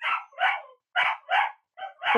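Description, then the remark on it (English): A pet dog howls in short, loud bursts, three pairs of rising-and-falling cries with brief pauses between them and no one talking. “If you leave him alone in a room for like over 15 minutes, it's this existential howl of yeah. I am so alone.”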